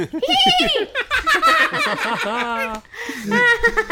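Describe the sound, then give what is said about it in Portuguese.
A person's voice imitates a horse neighing, a loud, wavering whinny with shaky rising and falling pitch, repeated in a couple of bursts, blending into laughter. “Gente, eu não trouxe bem um jogo, mas eu. trouxe um cavalo.”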